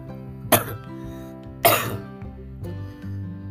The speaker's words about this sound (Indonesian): sorry uh, kalau agak batuk-batuk soalnya gue lagi kurang sehat